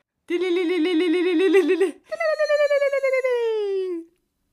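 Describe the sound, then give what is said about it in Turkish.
Zılgıt ululation: two loud, rapid trilling cries from a single voice, the first steady and lower, the second starting higher and gliding downward as it fades. “Şimdi zılgıt atabilmeyi çok isterdim.”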